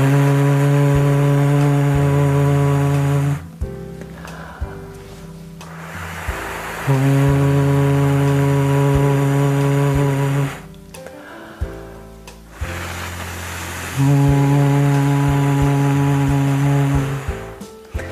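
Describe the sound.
In a vocal exercise, a voice alternates a breathy, whooshing wind imitation with a long, steady hooting tone like an owl, starting with the wind each time and repeating the pair three times, loud with no talk.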